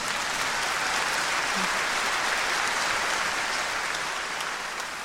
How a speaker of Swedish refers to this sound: Och då kommer det enorma applåder från mm, publiken.